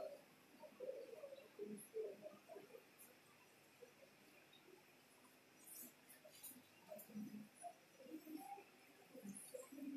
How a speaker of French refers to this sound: j'entends les cris des oiseaux là, on se pose même pas la question, mais comment ces oiseaux communiquent-ils entre eux